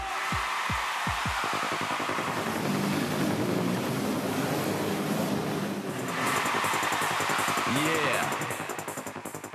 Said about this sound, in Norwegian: Mens eh, politiet har eh, starta offensiven for å bøtelegge folk som kjører eh, vannskuter, så har vannskuterførere nå samla seg i protest mot dette forbudet. Akkurat nå kjører en flåte av vannskutere fra Arendal og opp til Telemarkskanalen.